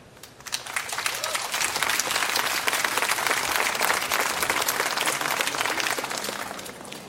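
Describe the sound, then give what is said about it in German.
An audience breaks into sustained applause for the author Dimitri Gluchowski, many hands clapping in a dense, steady wash that swells quickly and holds at an even, fairly loud level for several seconds. “Ein herzlicher Applaus für unseren Autor.”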